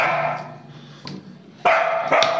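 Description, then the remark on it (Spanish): A dog barks in the room, several sharp, loud barks in an irregular sequence, with the later ones coming in quick succession and no talking over them. “Es, es su protagonismo, como saben que estamos hablando de... La vamos a dejar solo porque sabe que es de mascotas”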